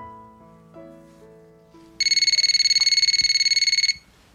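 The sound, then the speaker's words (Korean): A telephone rings in the middle of the night with a loud, rapid electronic trill of high-pitched pulses lasting about two seconds, following soft, sustained music notes. No one speaks. “한밤중에 전화였습니다.”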